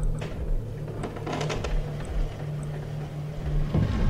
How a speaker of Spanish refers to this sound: Se escuchó cómo se movía aquel mueble pesado frente a la puerta de la habitación, junto a las escaleras.